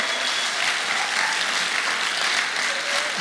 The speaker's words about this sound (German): Kommt, ihr Lieben, lasst uns noch ein letztes Mal richtig, nicht ein letztes Mal, aber noch einmal richtig Lärm für Jesus machen, okay? Einen richtig guten Applaus für unseren König. Den lieben wir, den feiern wir.